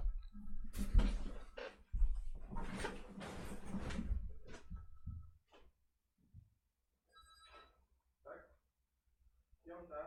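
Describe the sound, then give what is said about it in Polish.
A door is opened for an arriving courier: a burst of clattering, bumping noises from opening and closing, followed by a few quieter knocks and rustles, with muffled voices faintly in the background. “ojej, kurier przyszedł. Czekajcie, muszę otworzyć.”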